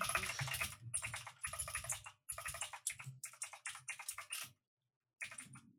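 Rapid, clattering keystrokes on a computer keyboard as someone searches on Google, in several bursts with short pauses between them, fairly loud, with no voices.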